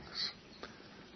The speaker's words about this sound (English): As I'm talking, I hear the birds singing, and I hear the sweetness of that, and the gentility of that, and how that is almost directing us towards that place that's real towards that place that is without anxiety